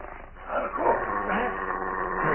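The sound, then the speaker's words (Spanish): A large dog barks and snarls in a steady, agitated stretch, loud, with a muffled, band-limited tone and no clear pauses between its vocalizations. “Apunta cuidadosamente con el revólver hacia los ojos del enorme perro y va a disparar cuando...”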